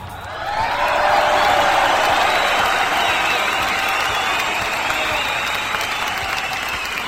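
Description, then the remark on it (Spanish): An audience claps on a radio music show, applauding the show's control-room music crew; a dense, even wash of many hands that swells quickly after a brief quiet start and holds at a loud, constant level throughout. “Ya, ya no le aplaudan tanto al Bru, Juanito ni al Pillo porque si no después se la creen.”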